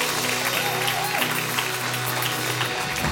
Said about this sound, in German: Hey, geben wir mal den Banner einen Applaus.